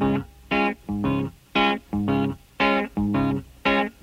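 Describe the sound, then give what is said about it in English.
A 1960s record plays slowed and dragging on a dance set record player with a half crown coin placed on it, its music lurching in loud, evenly spaced pulses about twice a second, each a thick smear of warbling low-pitched tones with no voices. “Put a half crown on it on the dance set, and it sounds like this.”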